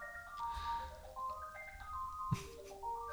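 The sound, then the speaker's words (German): A phone rings in the background with a melodic electronic ringtone, a tune of stepped tones played steadily for a few seconds, with a brief low thump partway through. “Gut, das Telefon lassen wir im Hintergrund jetzt einfach mal klingeln.”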